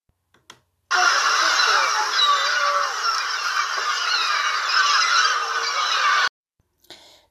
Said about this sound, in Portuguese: As gaivotas soltavam seus gritos agudos, sobrevoando a baía.